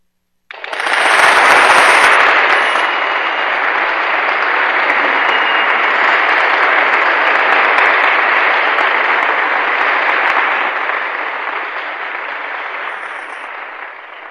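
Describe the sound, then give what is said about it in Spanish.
Sustained applause from a crowd after a poem is recited on Bata CM Radio, a dense crackling of many hands clapping that starts abruptly, holds steady and loud for over ten seconds, then begins to thin out. “Aplausos, por favor.”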